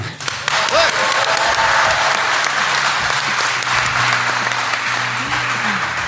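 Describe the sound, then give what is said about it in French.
A large crowd celebrating 50 years of Noroto claps and cheers continuously in the workshop of the first Noroto in Anglo, near Lille, a dense, loud wash of applause with scattered shouts and whoops rising above it throughout. “50 ans d'aventure humaine, alors une première émission toute spéciale puisque nous sommes là où tout a commencé, dans l'atelier du premier Noroto à Anglo, près de Lille, avec une foule en délire.”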